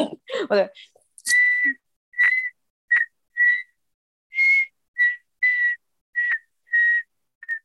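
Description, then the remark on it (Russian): A person who has been learning to whistle for a week whistles a slow, mournful funeral-march melody in a series of short, clear, evenly spaced notes, fairly loud, after a brief spoken moment at the start. “знаешь, что пытаюсь научиться свистеть? Этот похоронный этот мне очень нравится.”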